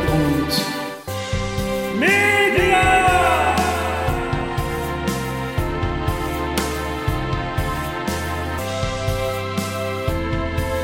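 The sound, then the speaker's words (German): Organ music played by a man at the organ, heard on its own, with full, sustained chords, a steady rhythmic bass line underneath and a few sliding, swelling notes near the start, loud throughout. “Und der Mann an der Orgel drückte alle seine Knöpfe, um das Ganze noch viel herbstlicher klingen zu lassen.”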